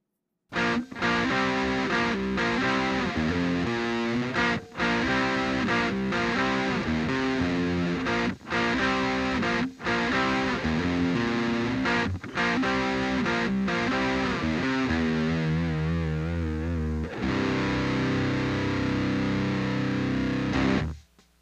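Electric guitar played through an overdrive pedal much like a TS9, with an added hot switch for a little more volume boost and gain: a loud, continuous riff of chords and sustained notes, with brief pauses between phrases and a gritty, saturated tone throughout; no talking.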